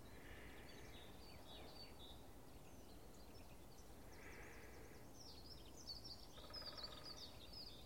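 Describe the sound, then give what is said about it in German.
Faint, fast bird song twitters, a stream of light, quick melodic chirps and trills running steadily over a soft background hiss with no voices. “Es ist so leicht fisselig, melodisch, schnell.”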